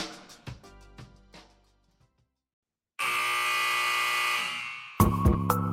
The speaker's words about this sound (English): The sound of the final buzzer means it's hangover time so grab a drink and join your host,